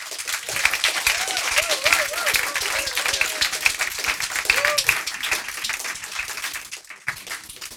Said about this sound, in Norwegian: Så endelig en klimabok som gir håp. Gi han en enorm applaus!